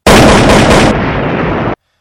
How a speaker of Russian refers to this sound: Это пустынная дорога, одинокий одиночка, одиноко бредущий по одинокой дороге, и дуэль двух ковбоев, и вот сейчас прогремят выстрелы, и только один уйдет на своих ногах.